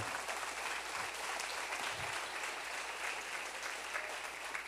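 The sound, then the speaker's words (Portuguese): An audience applauds together to give glory to God, a steady, dense wash of many hands clapping that fills the space evenly from start to finish, with no voices standing out. “Dá para dar glória a Deus aqui? Aplaude, ele aplaude.”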